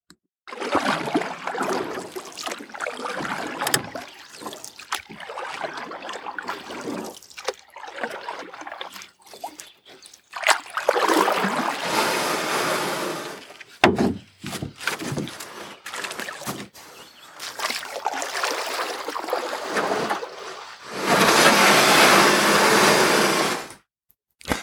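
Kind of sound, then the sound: vehicle, boat on water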